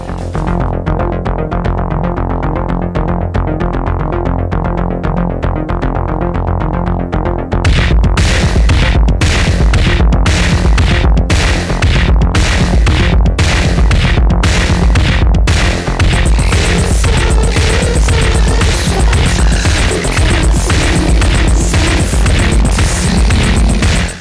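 A song from an album: a sustained, droning tonal intro over deep bass, then a loud, dense, distorted full-band section crashes in with pounding rhythmic drum hits and a constant gritty wall of sound.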